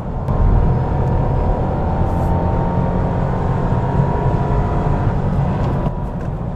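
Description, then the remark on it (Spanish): A Honda Civic's 1.0 three-cylinder engine hums steadily in third gear, its low drone blended with broad road and tire noise, loud and continuous throughout with no talking. “Ahora ya un poco más matizado por el ruido de rodadura.”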